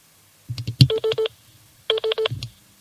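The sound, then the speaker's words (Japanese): Two quick bursts of telephone keypad tones, three or four beeps each, separated by a short pause, with handling knocks and thumps around them, clear, as a phone is dialed to make a call. “お電話をしようかなと思います。”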